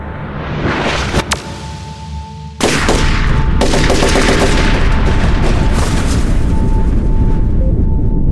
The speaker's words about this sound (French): Au même moment, un ancien élève âgé de 19 ans passe les portes du bâtiment. Il tient un fusil d'assaut AR-15 Smith Wesson dans les mains et sans sommation ni explication commence à tirer.